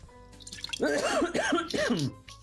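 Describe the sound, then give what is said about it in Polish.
Someone clears their throat in three rough, voiced bursts in quick succession, with no talking around it. “To ja sobie hartnę.”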